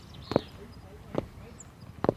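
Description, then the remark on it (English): Three evenly spaced footsteps land at a slow, steady walking pace, each a short, clear thud against a quiet background. “Try to walk to the sound of my footsteps so that we can stay together.”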